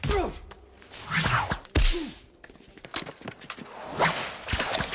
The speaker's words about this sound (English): The whip in the current film, much of it is taken from our original whip recordings, but we actually did some new recordings as well.